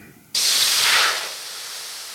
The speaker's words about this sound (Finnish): Näin se grilli sihisee, joten otetaanpa keskustelun mukaan meidän päivän vieras.